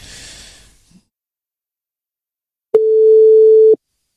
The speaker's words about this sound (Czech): Tak už Karel nám tady zvoní.